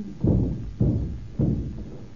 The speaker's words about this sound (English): Look here, I'm worried. I think we'd better break the door in.